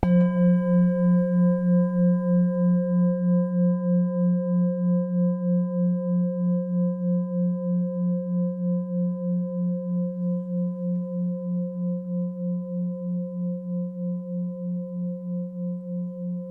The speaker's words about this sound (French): Euh, je l'ai fait à partir d'un son de bol euh, chantant et euh, de carillon. ce sont des, sons que j'utilise en fait pour, dans, le cadre de ce qu'on appelle la sonothérapie, c'est-à-dire de, la, thérapie par les sons.